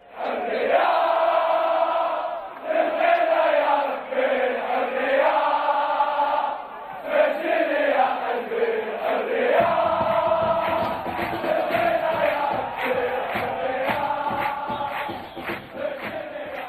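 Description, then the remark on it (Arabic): A huge stadium crowd of football ultras sings a loud, sustained chant in unison to cheer on their club, the melody rising and falling; about midway, rhythmic pounding drums join beneath the voices. “تصدح أغاني مجموعات الألتراس وهتافاتها لتشجيع نواديها الكرويّة في المدرّجات”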